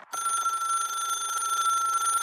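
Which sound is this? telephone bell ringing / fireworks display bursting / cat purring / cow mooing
telephone bell ringing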